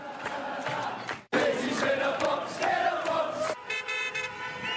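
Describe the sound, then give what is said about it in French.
A large crowd in a stadium in Dublin, Ireland, chants and sings loudly in unison, cut briefly after the first second, then shifts into a chorus of honking car horns in Londonderry, Northern Ireland, toward the end. “Une petite phrase comme une provocation, chantée dans ce stade de Dublin, quelques heures seulement après le décès de la reine.”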